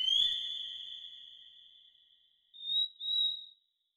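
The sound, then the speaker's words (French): A frog from Guadeloupe gives its two-note mating call: one long, high, whistle-like ringing note that slowly fades, then two short, sharper notes in quick succession, clear against a quiet background. One note warns males that the territory is occupied, the other calls females. “Ce chant est un appel sexuel elle possède un système de chant à deux notes. L'un pour avertir les mâles que le territoire est occupé, l'autre pour faire venir les femelles.”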